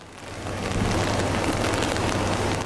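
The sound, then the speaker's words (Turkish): Heavy rain pours down during a storm in Kepez, Çanakkale, Turkey, a dense, steady roar swelling after the first half second and staying loud and continuous, with a low rumble underneath and no voices. “Çanakkale Kepez'de ise sağanak yağışlara karşı adeta imtihan verildi.”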